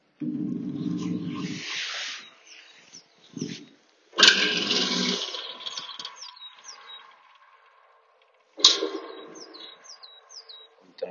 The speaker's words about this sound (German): Und ich weiß nicht, wie sich das gleich bei der Aufnahme wird, aber stellt euch vor, ein ausgehöhlter Baumstamm, zwei Löcher rechts und links und da drin hängen Seiten, und wenn man die schlägt, hört sich das so an.